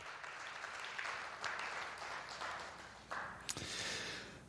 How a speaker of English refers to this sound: So yeah, give them a round of applause. They do a lot of work.